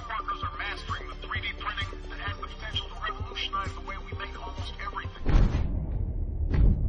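Thin, tinny music with a wavering melodic line plays through a small loudspeaker for about five seconds, then breaks into a loud crackling rumble with a second thump near the end.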